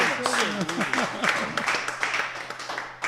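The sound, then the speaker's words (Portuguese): Steady clapping, a short round of applause with dense, rapid hand claps continuing for a few seconds, mixed with voices, some rising and falling in pitch. “Ah, vou dar uma salva de palmas.”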